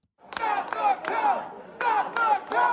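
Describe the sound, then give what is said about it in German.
Hundreds of Trump supporters in Michigan chant "Stop the Vote" in unison at a protest, loud repeated shouts in a steady cadence with sharp claps or beats punctuating each phrase. “In Michigan laufen hunderte Trump-Unterstützer auf, die Stop the Vote rufen.”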